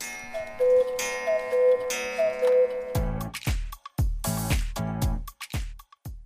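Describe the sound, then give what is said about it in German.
Black Forest cuckoo clocks tick loudly and steadily at a traditional cuckoo clock maker in Schonach, on the Clock Road in the Black Forest, Germany, their sharp regular beats starting about halfway through after a soft, sustained tonal passage with a repeating two-note figure. No one speaks. “Rombach und Haas ist ein Traditionsunternehmen, das die berühmten Schwarzwälder Kuckucksuhren herstellt.”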